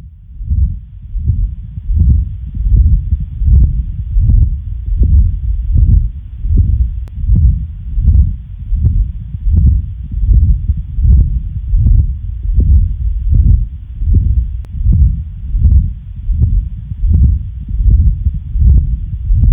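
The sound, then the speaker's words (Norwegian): A continuous machine-like heart murmur from a patent ductus arteriosus (PDA), heard in both systole and diastole, rumbles steadily under regular, evenly spaced heartbeats, swelling with each beat and never fully pausing between them. Loud, with no talking. “Og så nevnte du også at kontinuerlige bylyder er patologiske. Vi har et eksempel på det også.”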